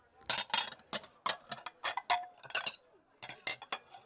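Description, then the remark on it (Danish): A plate clatters onto a stack of dishes, setting off a busy run of sharp ceramic clinks and rattles that keep going for a few seconds before settling. “Hun smed tallerkenen fra sig i opvaskestablen med afsky”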